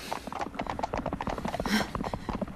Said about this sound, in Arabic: ما هذا؟ أسمع ركض حصان وراءنا هل هو أحد رجالك؟